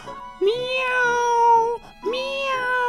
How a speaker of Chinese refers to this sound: 只听啪嗒一声响，电视机被打开了。荧光屏上一只猫，喵